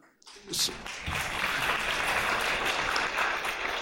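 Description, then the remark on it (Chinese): Applause from an audience starts abruptly after a brief quiet moment and carries on as a steady, dense wash of clapping at a fairly even loudness for several seconds. “为什么要鼓掌我也不知道，是更失语。”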